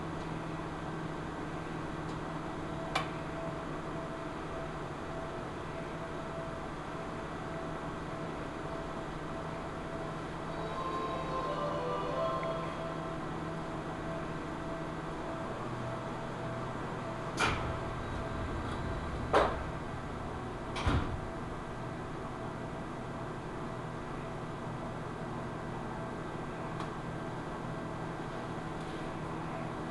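A Chichibu Railway through-service local train bound for Mitsumineguchi via Nagatoro hums steadily while stopped at a station in Japan, its low engine drone shifting partway through, followed by a few sharp knocks and thuds like doors shutting before departure.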